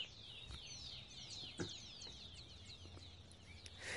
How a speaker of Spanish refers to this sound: Mira, ya despertaron los pajaritos.